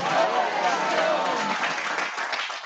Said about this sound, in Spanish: Alguien da un aplauso fuerte a Jesús. Vamos, alguien que tenga fe, que le dé un aplauso fuerte a Jesús y que grite doble porción.